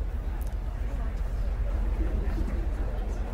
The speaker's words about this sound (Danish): Bankop Kiel overfarten er på vej retur og ligger snart igen ved færgelejet i Bankop. Ombord er humøret højt og stemningen løsluppen, og de forskellige rejsegrupper snakken danner på samme måde som motorstøjen et solidt bagtæppe af lyd.